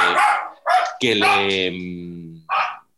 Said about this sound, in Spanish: Voy a cerrar la ventana, aprovecho eh, para porque está mi perra que hemos adoptado hace un par de meses, está ladrando, entonces voy a, aprovecho y estamos un poco más en silencio.